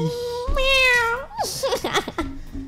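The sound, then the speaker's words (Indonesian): A person does a drawn-out, sliding meow in imitation of a cat, loud, followed by a few quick, chattering vocal sounds. “Kalau bahasa gue itu mandi kucing. Mandi kucing. Meow.”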